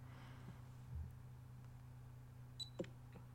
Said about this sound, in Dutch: Bij het starten van de opname hoor je één piepje. Bij het stoppen heb je twee piepjes.